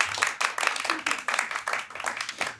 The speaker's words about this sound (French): Attention de ne pas applaudir trop dans les micros.